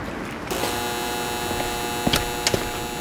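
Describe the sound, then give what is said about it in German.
An intercom doorbell is pressed: a steady electric buzz switches on and holds, with a couple of short sharp clicks near the end. No one speaks. “An einer Gegensprechanlage wird die Klingel gedrückt.”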